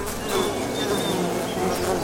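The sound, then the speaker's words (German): A steady buzzing of a bee drones on without a break for about two seconds, with a faint tonal whine above the hum and a continuous, even loudness. “Die Biene.”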